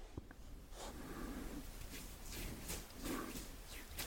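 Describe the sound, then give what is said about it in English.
Muffled rubbing of an eye: a run of soft, squishy rustling strokes repeating unevenly over a low, steady rumble, with no voices. “That's the sound of me like rubbing my eye”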